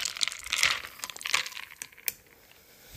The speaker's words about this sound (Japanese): で、えー、今一緒にあのどん兵衛を食べるわけですから、えー、そのどん兵衛を食べる時のお箸をですねお箸で、えー、氷の入ったハイボールを混ぜるとその時の音が音がこれです。